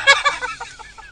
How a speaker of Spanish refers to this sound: Ay, pato.